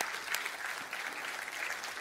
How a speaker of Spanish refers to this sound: Si usted está de acuerdo conmigo, démosle un aplauso fuerte, fuerte al Señor.